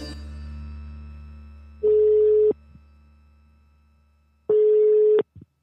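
Two long ringback tones of an outgoing phone call, each steady buzzing beep lasting under a second, separated by a long pause, clear and fairly loud with no talking.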